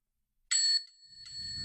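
A bright, high bell rings sharply, then rings again more softly about a second later, its metallic tone lingering over a faint low rumble.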